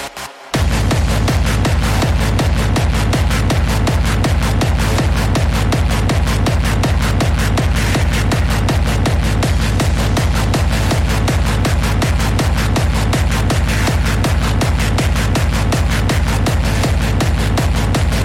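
A loud, fast hardcore electronic dance track in a style recalling the Millennium hardcore era, with relentless pounding kick drums in a steady rapid beat and dense distorted synths filling the mix, playing continuously without any voices.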